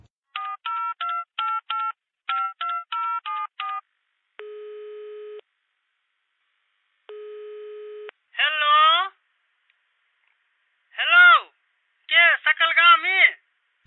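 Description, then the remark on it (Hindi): A rapid string of keypad dialing beeps, then two long, steady telephone ringback tones separated by a pause, followed by a person speaking briefly in short bursts. “हो जल्दी फोन लगा ने दे अच्छा लगा दे छियै”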